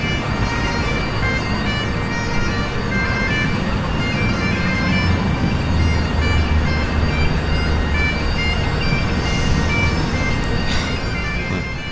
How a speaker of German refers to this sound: Aber was wir hier hören, ist ein kleiner Dudelsack. Und das ist wirklich was, was man in London überall hat. An jeder Straßenecke stehen Menschen und machen Musik. Und zwar keine schlechte.